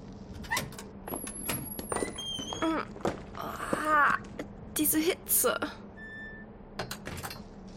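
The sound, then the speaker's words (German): A door creaks slowly open with a drawn-out groaning squeal, surrounded by scattered knocks and thuds, some faint whistling tones, and a low steady hum underneath. “zog sich mit Mühe an der Tür hoch und öffnete diese zögerlich.”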